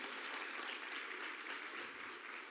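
An audience applauds steadily, a dense, even wash of many hands clapping at a constant loudness for a few seconds with no voices standing out.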